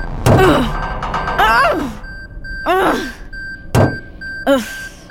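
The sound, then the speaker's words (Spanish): A door with weakened hinges being forced open: two heavy thuds alternate with three drawn-out, bending creaks or groans, loud, as the door is shoved and strains on its hinges. “Magnus debilitó las bisagras de la puerta. Vamos, puerta.”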